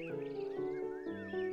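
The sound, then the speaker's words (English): A work horse hitched to a mowing machine neighs in one loud, continuous whinny, its tone wavering and stepping between pitches across a brief call, with no voices present. “Around the 1st of July, the work horses were hitched to the mowing machine, and Mr.”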